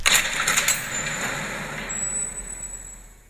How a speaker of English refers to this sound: Because um, we're shutting the, the door on the vault.